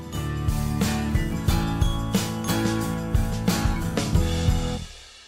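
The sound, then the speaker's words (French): A short, bright musical jingle for a YouTube show, made by a YouTuber musician, with steady rhythmic beats and sustained tonal chords, playing loudly on its own for about five seconds before fading out. “un ami youtubeur, musicien qui nous a fait le jingle”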